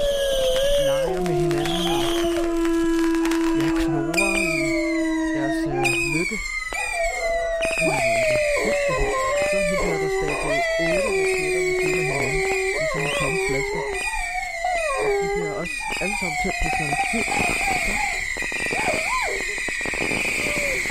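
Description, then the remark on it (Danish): Several dogs running around confused during fireworks howl together in long, wavering, overlapping cries, with a few sharper yelps and barks mixed in, loud throughout, with the chorus rising and falling continuously. “Og hundene løber også bare forvirret rundt”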